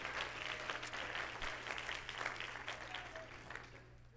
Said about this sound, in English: Let's clap our hands again to the Lord.